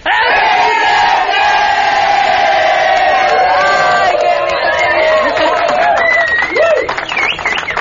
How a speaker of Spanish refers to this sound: porque necesitábamos gritar. Ay, otra vez, ¿no? Yo digo, porque nos falta sacar el estrés.